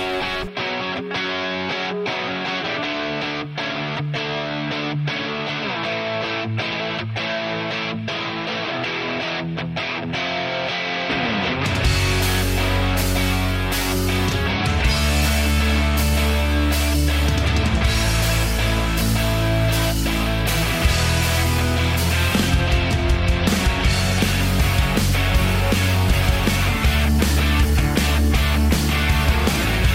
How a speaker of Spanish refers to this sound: vamos a escuchar … de …